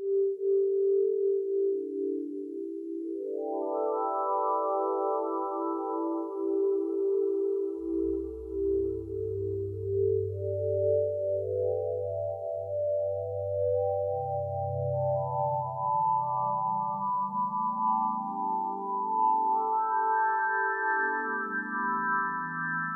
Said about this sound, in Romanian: Am auzit imaginea, pentru că vorbim de sonificare, am auzit imaginea unei alte explozii de supernovă ce a avut loc recent. Este vorba de o supernovă care a explodat în 1987 și măsurătoarea de data aceasta a avut loc într o perioadă de 10 ani.